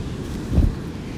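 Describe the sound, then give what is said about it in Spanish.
Ocean waves rumble low and steady against the shore, with a single fuller surge swelling briefly in the middle before settling back into a muffled, windy wash. “Aquí sentada frente al mar, leyendo este hermoso libro”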